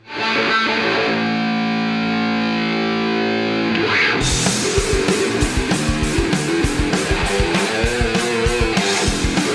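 A heavily distorted electric bass solo with a wah-wah effect holds long, droning notes, then a steady drum beat kicks in halfway through as the playing turns choppier. No one speaks.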